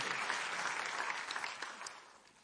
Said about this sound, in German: Ja, lasst uns ihm und seiner Frau nochmal echt einen großen Applaus geben.